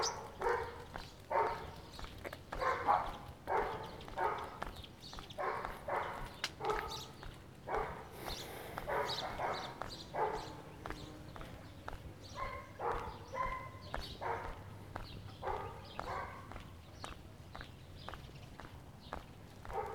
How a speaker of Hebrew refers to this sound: צליל הכלב שמאחורי גדר וצליל הכלב שמחוץ לגדר. מין כזה כלבטרונה, כלביות הצייה. שזה אומר כלב מצד אחד, כלב מצד שני וכולי.